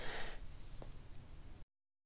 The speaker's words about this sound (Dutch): Even hoesten.